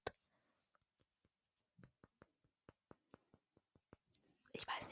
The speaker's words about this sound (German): Jetzt nehme ich mal mein anderes Parfüm und klopfe es an mein anderes Parfüm. Wartet eben mal ganz kurz. Hier habe ich mein anderes Parfüm für die Nacht.